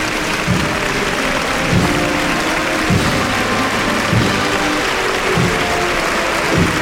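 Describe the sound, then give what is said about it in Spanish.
A crowd at a Holy Week procession applauds the army and the flag steadily and loudly for several seconds, a dense, continuous clatter of many hands clapping with a few louder swells, and no voices standing out. “Sí, la iniciativa ha partido de aquí, de este sector, aquí a mi espalda, y se ha extendido rápidamente el aplauso prolongado.”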